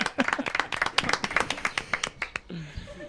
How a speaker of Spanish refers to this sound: Un aplauso.